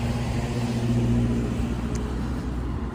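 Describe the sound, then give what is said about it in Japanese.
A bus engine rumbles, a loud, steady low drone with a faint whine on top, holding fairly even for the few seconds as it moves along. It is the Okegawa Kindergarten bus arriving. “そう桶川幼稚園のねバスが来たということで急に走りましたという”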